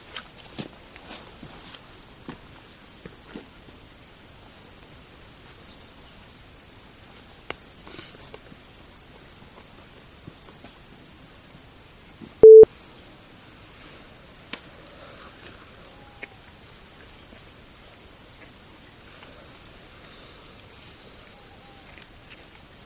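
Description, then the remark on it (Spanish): Hushed night-time ambience in a forest known as the witches' forest, at 12:40 a.m., among trees at a crossroads of paths. Mostly still and quiet, with faint rustles, scattered small snaps and soft footstep-like crunches, broken once midway by a short, sharp electronic-sounding beep. “Este es el sonido ambiente del bosque de las brujas.”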